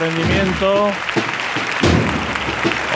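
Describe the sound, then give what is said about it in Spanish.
A street crowd bursts into loud, sustained applause and cheering for the procession float of the Señor del Soberano Poder under a shower of petals, a dense wash of clapping with shouted voices rising above it, swelling again partway through. “Ovación cerrada.”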